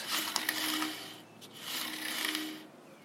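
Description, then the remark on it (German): A bicycle wheel grinds against something on a bicycle that has stopped rolling, in two long, rasping sweeps separated by a short pause, a steady scraping hiss with a faint mechanical whir underneath and no voices. “Da schleift nur noch das Rad.”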